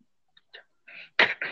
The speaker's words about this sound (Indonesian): Aduh batuk gua.